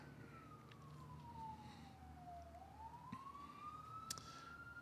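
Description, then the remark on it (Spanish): An ambulance siren wails past, its tone sliding down and then climbing back up, heard over a steady rumble of street traffic with no one talking. “Iba a pausar ahí, pero ni modo, ahí va la ambulancia.”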